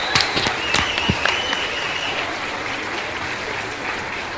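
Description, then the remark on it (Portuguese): Enthusiastic applause: dense, rapid clapping that stays steady and fairly loud across the whole clip, with a few sharper individual claps standing out early on and no voices. “Palmas efusivas.”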